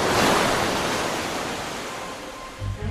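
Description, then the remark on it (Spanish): A large ocean wave, bigger than the others, crashes and washes across a beach in a loud, broad rush of surf that slowly recedes, with a low rumble near the end and no voices. “Acababa de pasar una ola más grande que las otras.”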